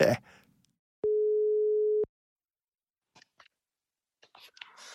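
A single steady telephone ringback tone of an outgoing call placed from a studio sounds for about one second, clear and fairly loud, followed by near silence broken only by a few faint clicks and rustles.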